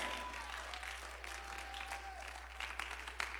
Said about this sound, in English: Come on, if you feel like that, clap your hands harder.